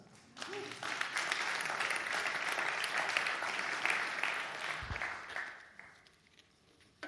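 A crowd applauds steadily for several seconds, a dense wash of clapping that swells quickly, holds, then fades away toward the end.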